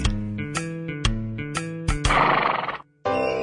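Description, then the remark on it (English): A horse whinnies loudly, a shaky, pulsing neigh that rises and breaks into a breathy snort, then briefly resumes after a short pause. “Nag with a bag.”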